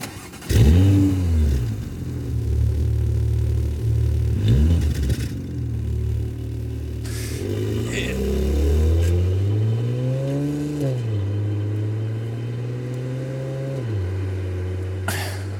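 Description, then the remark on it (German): A Porsche sports car engine revs hard and repeatedly, its pitch sweeping up and dropping back between throttle blips, loud, with a deep rumbling idle underneath and no voices. “Ich spiele dir jetzt einen Motorsound vor und du musst raten, um welches Porsche-Modell es sich handelt.”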